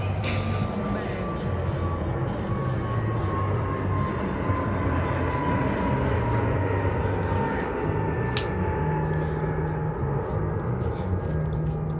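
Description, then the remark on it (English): An airplane roars steadily overhead, a loud, continuous engine rumble with a faint tone that slowly drops in pitch as it passes, with indistinct voices murmuring faintly in the background. “um plane. Look at.”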